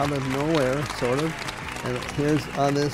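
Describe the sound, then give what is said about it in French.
Applause for Tom Oberheim, a steady wash of clapping that runs through the whole moment, with voices calling out over it in rising and falling tones. “C'est le bordel dans son atelier, mais euh, bon, on peut l'applaudir quand même.”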